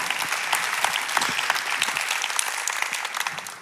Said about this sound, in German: Lass uns diesem Gott heute, come on, einen Applaus geben. Come on. Come on.